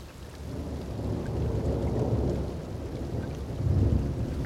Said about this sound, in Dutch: We lopen nu naar buiten. Het is toch behoorlijk eh, fris. Het regent nog steeds.